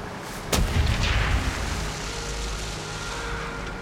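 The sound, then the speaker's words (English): A U-boat's deck gun fires a warning shot at the ship Farnborough, signalling the crew to abandon ship: one sharp, loud crack that rolls into a deep, fading boom, leaving a steady low rumble underneath. No one speaks. “the U boat's deck gun fires warning shots at Farnborough.”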